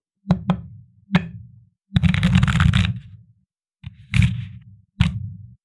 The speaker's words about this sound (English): When I was shuffling, this card fell out from the deck, so maybe it was the universe giving us this card, or maybe I'm just a sloppy shuffler.